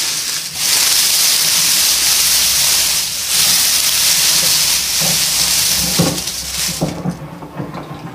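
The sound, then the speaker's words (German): Someone rustles dry leaves continuously for several seconds, making a crackling, dense hissing texture with a few louder scrunches near the end before it thins out. No one speaks. “Wenn man hier reinkommt, hier kann man dann auch ein bisschen mit den Blättern rascheln.”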